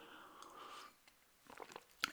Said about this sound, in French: Je vais boire une petite gorgée d'eau, si vous le permettez.